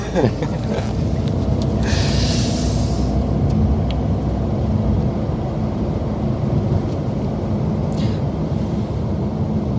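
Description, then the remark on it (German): A vehicle drives along taxiway Delta 1 at Hamburg airport, its deep engine and road rumble steady throughout, with a brief airy hiss rising early on and a few faint clicks. “der Rollweg Delta 1 und den fahren wir jetzt einmal durch und äh, ja, und dann würde ich Sie mal mitnehmen auf ein Fleckchen Hamburg, wo gesagt nicht so viele Menschen hinkommen.”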